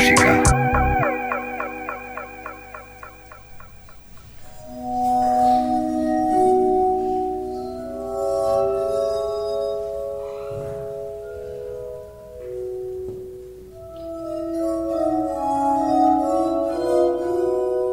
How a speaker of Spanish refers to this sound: Estamos escuchando el Glass Armónica. Sí, o armónica de, cristal, armónica de vidrio, arpa de vidrio.